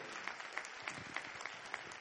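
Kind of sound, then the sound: crowd, round of applause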